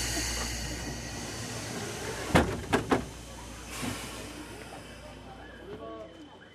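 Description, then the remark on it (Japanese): Inside a carriage of a Chichibu Railway SL steam train, which runs slower than ordinary trains, as it arrives at Nagatoro station in Saitama: a steady rumbling hiss while several sharp metallic clunks sound in quick succession, with children's excited voices murmuring faintly in the background as it slows. “普通の電車のスピードよりゆっくりと走る SL 車内でもねずっと子供たちのはしゃぐ声っていうのが聞こえてきてワクワク感っていうのが伝わってきますね”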